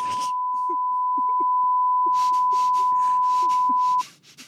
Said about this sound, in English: Now, to be clear, I played the censorship beep. I didn't say anything. There's not even anything under the beep.